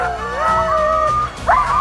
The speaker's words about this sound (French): les premiers chiens qui aboient, ça agace les autres, alors ils aboient aussi, et ils aboient de plus en plus fort